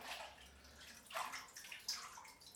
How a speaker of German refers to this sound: Oh, das Wasser läuft über. Also Leute, wenn ihr dick seid, solltet ihr nicht so viel Wasser in die Wanne lassen, weil dann läuft es nämlich über, wenn ihr euch reinsetzt.